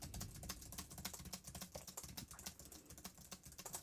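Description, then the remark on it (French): Rapid typing on a computer keyboard, a dense run of crisp key clicks with an uneven rhythm, continuing steadily with no voices; typed to demonstrate how a cardioid condenser microphone picks up handling noise. “Maintenant au clavier.”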